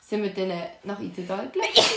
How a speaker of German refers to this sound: Gesundheit! Danke. du und deine Allergie.